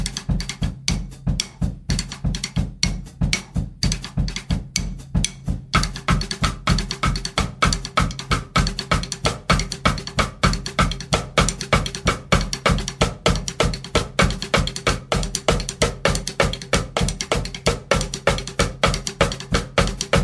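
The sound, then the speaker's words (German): Sharp, woody clicks struck on a snare drum's rim in a steady rapid rhythm, fairly loud, repeating for the whole stretch over a low ringing drum tone, with no voices. “Ihr habt es eben schon gehört, aber dann ist es auch so, dass ich, wenn ich jetzt mal den Rimm schlage von der Snare, das ganz anders klingt, als wenn ich den Groove X schlage.”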